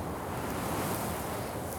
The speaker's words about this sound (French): À chaque bourrasque, devant, il y a euh, une espèce de petit brouillard de sable qui s'élève et qui parcourt la dune, tout en... Ça, fait comme un petit rideau, un petit voile